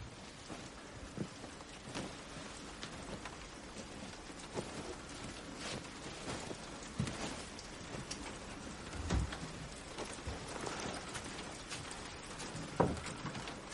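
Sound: rain falling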